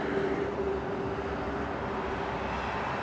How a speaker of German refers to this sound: Auf der Autobahnbrücke bleiben wir stehen und hören dem Krach vom Verkehr zu.